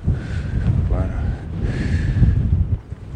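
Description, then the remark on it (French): Strong wind buffets the microphone in a continuous low, rough rumble that swells and eases, with a brief voice sound partly buried beneath it. “un petit bosquet parfait pour se mettre à l'abri du vent.”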